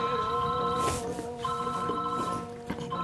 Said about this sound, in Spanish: Ese es mi teléfono, te das cuenta. Es el llamado de la conciencia.